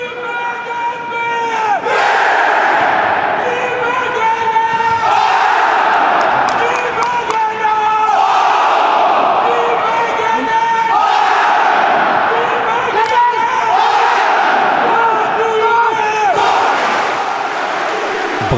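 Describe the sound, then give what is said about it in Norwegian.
A huge stadium crowd of thousands of Brann supporters chants "Brann" in unison, loud and sustained, the same short phrase swelling and repeating roughly every few seconds in a steady rhythm, with scattered shouts and claps underneath. “Stemmen til tusenvis av supportere som ropte 'Brann', runga på stadion.”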